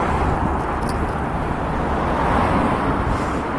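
Steady roar of road traffic from passing cars on the busy Kanpachi road in Tokyo, on a windy morning walk, a dense continuous rumble with no pauses, filling the whole stretch at a fairly loud level.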